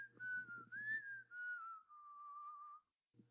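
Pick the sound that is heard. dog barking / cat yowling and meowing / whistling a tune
whistling a tune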